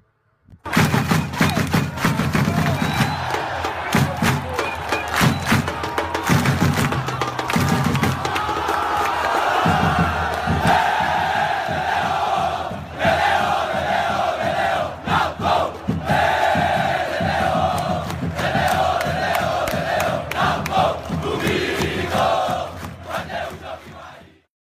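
A loud jingle lasting about twenty-five seconds, introducing the predictions segment of a football show, built from a roaring crowd with chanting voices and repeated sharp, percussive bursts. It holds a steady, dense level throughout, with no one speaking over it.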